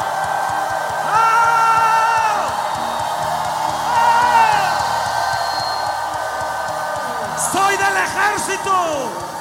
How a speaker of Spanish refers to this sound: Un grito de clamor, un grito de clamor. No te escucho. Que traspasen los cielos.